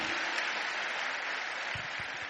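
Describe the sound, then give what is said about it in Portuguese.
An audience applauds steadily during a sermon, a dense wash of many hands clapping at an even, sustained loudness with no speech over it. “Pode aplaudir, é isso aí.”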